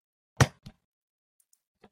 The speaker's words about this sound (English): did you unzip your zipper? Gee, what the fuck? No, that, was, that was my chair. that was my oh, chair.